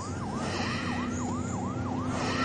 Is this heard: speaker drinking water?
no